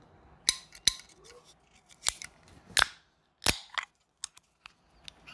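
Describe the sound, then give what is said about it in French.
A person at a party imitates a drink can being opened with their mouth: a series of sharp, close pops and clicks, then a brief fizzing hiss, followed by a few softer ticks. “Ben, on ouvre d'habitude des canettes. Fait que là, on va en ouvrir une à la fois, mais ça ressemble à quoi un son de canette qui ouvre?”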